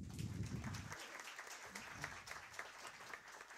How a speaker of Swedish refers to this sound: Och jag tycker vi tar en, en applåd till panelen.